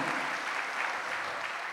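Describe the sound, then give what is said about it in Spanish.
A church audience applauds Christ in praise, a dense, continuous wash of many hands clapping at an even level throughout, with no voices standing out. “Dale un aplauso a Cristo, a su nombre, gloria.”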